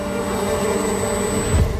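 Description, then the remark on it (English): A steady, droning buzz of bees holds at an even low-to-mid pitch for about two seconds, with a slight swell near the end and no voices. “They'll be gone in a minute. Bees are good, aren't they? They just want to make honey.”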